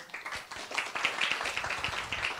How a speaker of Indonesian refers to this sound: Tepuk tangan buat Tuhan yuk.